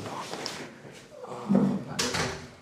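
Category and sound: household object, door being closed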